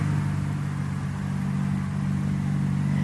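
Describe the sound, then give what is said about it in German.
Buggies rumble along with a steady, fairly loud motor drone and a low humming engine tone that holds constant throughout, with no one talking. “Was siehst du jetzt ein Auto? Ah, Buggies kommen da an, so ah.”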